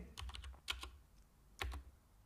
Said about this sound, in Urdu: کی بورڈ کی آواز اور ساتھ ہی ساتھ گانے گنگنانے کی آواز اسے صاف سنائی دے رہی تھی